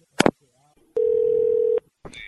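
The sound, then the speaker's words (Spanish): A sharp click, then a loud, steady telephone line tone holding for almost a second before cutting off abruptly, followed by a short electronic chirp, as a phone call with a caller is hung up. “Te voy a colgar.”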